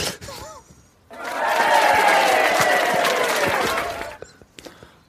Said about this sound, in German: Jetzt könntest du mal so Applaus einspielen. Ja. Es, es, ja, es wirkt, jetzt, wirkt jetzt so natürlich und spontan gut.